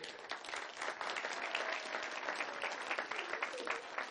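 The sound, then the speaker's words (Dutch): A group breaks into applause for the children, many hands clapping in a dense, steady patter that holds at an even, moderately loud level for about four seconds, with no talking over it. “Ik wil even een applaus voor al die kinderen geven”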